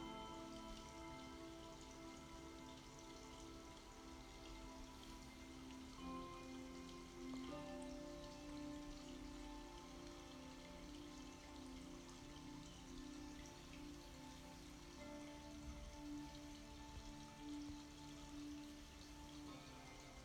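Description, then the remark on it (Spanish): A steady, continuous rush of flowing river water and a waterfall, soft and even throughout, with a faint sustained musical drone humming beneath it and no voices. “Y ahora, sentada sobre la tierra, cierras tus ojos para simplemente escuchar el agua del río y de la cascada.”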